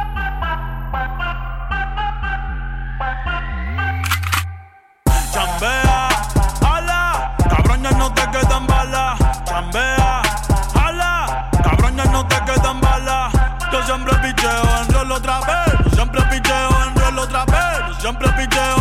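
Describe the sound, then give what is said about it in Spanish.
A Latin trap song: a brief synth intro cuts out, then a loud, heavy bass beat drops in with a rapped vocal line riding over it, steady and dense to the end. “Escuchamos … de … antes de viajar hasta Florida.”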